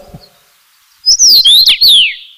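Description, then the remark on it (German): A loud song of a rare breeding moorland bird of the region bursts in after a moment of near silence: a quick run of bright, clear whistled notes, several sliding downward, with no voices present. “Und äh, ich hoffe, ich kann jetzt da die Stimme kurz abspielen, ja, einen sehr einprägsamen Gesang, der ins Ohr geht.”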